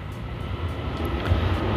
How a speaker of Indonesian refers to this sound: mohon maaf tadi ada kereta lewat